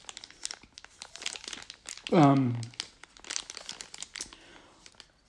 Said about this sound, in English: All right, so I'm opening the box.